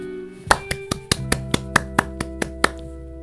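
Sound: one person clapping hands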